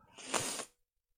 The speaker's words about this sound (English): Are you biting your mic now? No. What what what is wrong with you?